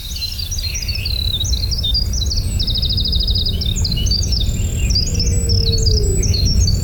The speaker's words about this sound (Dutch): Dit is bijvoorbeeld een winterkoninkje. Dus een van mijn favorieten. Ontzettend complexe zang.